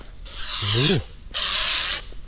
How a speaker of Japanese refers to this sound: 今目の前、4メートルぐらいをすごいでっかい鳥が横切って飛んでいった離陸しましたよ。